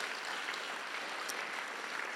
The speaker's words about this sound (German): Hey, lasst uns nochmal unserer ganzen Church Family einfach nochmal einen riesen Applaus geben.